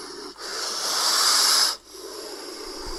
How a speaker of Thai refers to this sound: ต้องผลิตเสียงอะไรเพื่อการสื่อสารหลักๆ ของงูเนี่ยการที่พ่นลมออกมานะครับไม่ว่าจะตรงจากหลอดลมหรือว่าผ่านกระโหลกในส่วนต่างๆ็เพื่อขู่ศัตรูหรือว่าทำตัวให้พองใหญ่ขึ้นนะครับ ในกรณีที่เจอศัตรูหรือภัยในระยะกระชั้นชิด มันก็แค่สื่อสารเพื่อเป็นการขู่นั่นแหละครับ